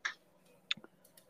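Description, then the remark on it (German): A few quiet, sharp clicks at irregular intervals from a computer mouse being clicked in the background while someone browses on a computer, with two crisper taps standing out among fainter ones and no talking. “Ähm, man hört dich die ganze Zeit klicken im Hintergrund.”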